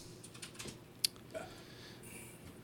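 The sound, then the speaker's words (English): Quiet, irregular clicking of someone typing on a computer keyboard, a few soft keystrokes and one sharper, louder tap partway through, with no voices. “oh, wrong keyboard.”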